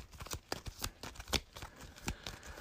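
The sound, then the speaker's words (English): A deck of cards being shuffled during a tabletop card game, with quick rapid riffling bursts and soft slaps repeating irregularly over a few seconds, no voices. “Let me shuffle the burial pit.”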